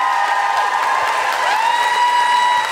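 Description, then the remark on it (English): An audience at Kings Place applauds comedian Jessica Fostekew steadily, a dense wash of clapping with cheers and sustained whistles rising and falling above it, continuous and fairly loud for the whole stretch. “A big round of applause for Jessica Fostekew.”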